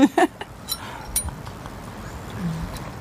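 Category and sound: household object, glasses or bottles clinking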